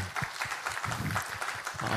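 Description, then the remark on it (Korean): An audience at a church worship service applauds, giving applause of thanks and glory to God, many hands clapping together in a dense, steady crackle that carries on without a break, with a faint low murmur of voices underneath. “할렐루야 우리 하나님께 감사와 영광의 박수 올려드리도록 하겠습니다.”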